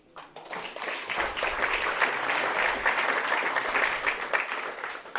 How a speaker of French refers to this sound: Je vous laisse applaudir.